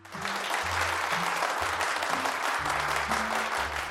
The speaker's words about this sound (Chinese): 讲堂内突然爆发出热烈的掌声。